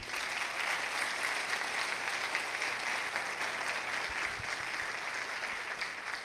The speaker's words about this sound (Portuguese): Quem pode aplaudir Jesus pela vida dele?